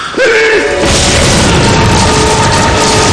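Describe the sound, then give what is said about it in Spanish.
A loud, sudden electrical explosion, caused by a bare light-bulb filament touching a puddle of water, bursts in and sustains as a roaring, crackling wash of noise for several seconds, with a brief tonal whine at the start. No voices are heard. “provocando una fuerte explosión por corriente eléctrica que transporta de nuevo a John al infierno”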